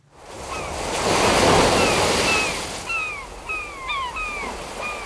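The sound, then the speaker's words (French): Ocean surf swells and washes in a broad roar, while several seagulls call overhead in short, descending cries, repeating in a loose series over the waves. “Allez, pour s'encourager un peu, on termine le journal imprévisible avec un soupçon d'océan.”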